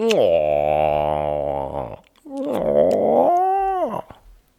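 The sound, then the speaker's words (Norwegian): A voice imitates a stomach rumbling with two drawn-out, gurgling vocal groans, the first long and steady, the second rising and wavering before cutting off, loud. “Ja, altså, det rumler i magen.”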